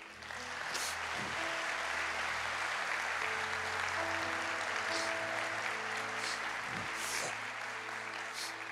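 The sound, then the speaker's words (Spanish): An audience applauds the Lord steadily for several seconds, a dense wash of clapping that holds at an even, fairly loud level with a few sharper individual claps and faint sustained tones underneath. “¿Le puedes dar un aplauso al Señor, por favor?”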